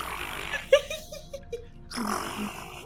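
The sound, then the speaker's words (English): A person imitates a low, raspy growl with their voice, coming out more like a soft purr, in short rough bursts. “And now I'm I'm gonna try growling at it, and okay. it probably sounds more like a purr because she doesn't know what she's doing, and so it's kind of like.”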